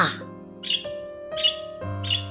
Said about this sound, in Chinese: 可是啊，蚂蚁没来，反倒来了一只小鸟，啄着饼干屑，吃得津津有味儿，一吃完就飞走了。